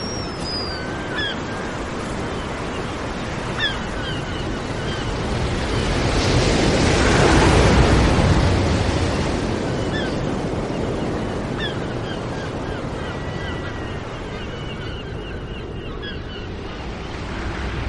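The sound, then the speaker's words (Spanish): Sea waves wash against the foot of a cliff tens of meters below, in a broad, steady roar that swells louder midway before easing back, with wind rushing across the microphone and faint bird chirps drifting overhead. “se acerca al borde del acantilado para contemplar el mar a decenas de metros bajo sus pies.”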